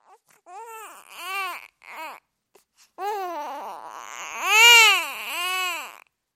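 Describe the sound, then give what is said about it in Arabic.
A newborn baby cries: a few short, halting wails, a brief pause, then a longer, rising cry that peaks loudly before tapering off. No one speaks. “كانت انسون على وشك الاقتراب لتفحص ما ظنت انه طفل رضيع”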